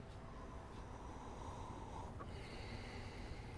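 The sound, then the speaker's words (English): Breathy sniffing as someone draws air in through the nose over a glass of whiskey, a steady soft rushing inhale with faint clinks of glass and no talking. “Let's sniff it up.”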